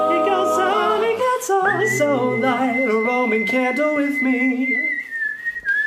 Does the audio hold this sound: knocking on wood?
no